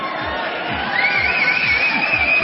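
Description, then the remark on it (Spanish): A crowd cheers and claps in a steady, dense wash of noise, with a high whistle-like shout rising out of it partway through and the cheering growing slightly louder. “Ni le aplaudan, ¿eh?”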